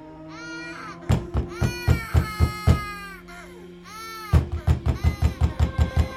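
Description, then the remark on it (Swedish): A baby cries in high, wavering wails broken into rapid rhythmic sobs, pauses briefly, then starts up again with another run of choppy, gasping bursts. Fairly loud, with no talking. “Först nu hör jag vad det är som låter. Det är gråt. Barngråt.”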